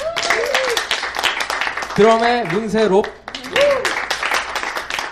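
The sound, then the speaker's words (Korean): Steady audience applause during band member introductions at the end of the jazz radio show 재즈앤블루스 (Jazz & Blues), a dense patter of many hands clapping throughout, while a man speaks over it, his voice rising briefly in a sung or drawn-out tone midway. “어, 어, 뭐, 뭐 박수 왜더 쳐주는 거야?”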